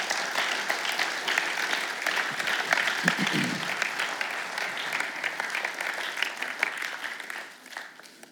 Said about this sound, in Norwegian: Bra. Kan vi ikke gi en uh, applaus?